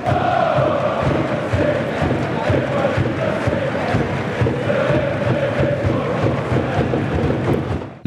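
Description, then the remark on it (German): A large stadium crowd of FCB football fans sings one of their club songs together as a chant, a loud, sustained wall of voices with a steady rhythm and a dense roar filling the space throughout. “ein Song, den natürlich die Fans auch immer wieder im Stadion singen, ist der hier.”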